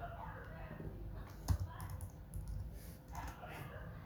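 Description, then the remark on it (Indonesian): Irregular bursts of typing on a computer keyboard, quiet clicks with one sharper keystroke near the middle, over a low background hum with a faint murmur of voice. “nah kesel ketik ketik lupa gue”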